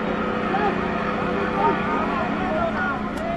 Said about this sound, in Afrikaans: 'n besige woensdagmiddag op Lambertsbaai. Die snoek loop op die oomblik soos die mense van die Weske sê. 'n Reënboog van honderde bote wat dagbreek al uitgevaar het oop see toe, is besig om van vroegmiddag af hul vangste terug te bring hawe toe.